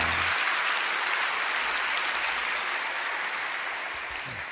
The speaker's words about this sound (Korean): 오늘은 특별히 멀리 평택, 서산, 대한 우리 성도님들이 이렇게 아, 이른 새벽 아마 아, 아주 일찍 우리가 잘 때 출발하셨을 거예요. 아, 우리 큰 박수로 감사로 감사하겠습니다.